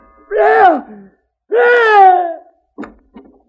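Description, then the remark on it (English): A man lets out two loud, drawn-out screams of rage, each harsh and strained with a falling pitch, followed by a couple of short, ragged breathy bursts. “He jeweled at the corner of his mouth, and then he screamed,”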